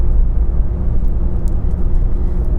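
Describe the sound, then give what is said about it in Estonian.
Steady, loud low rumble of a car driving on the road toward Tallinn, heard from inside the cabin, with constant engine and tire drone and no voices. “nüüd ma olen juba auto ninaga Tallinna suunas tagasi.”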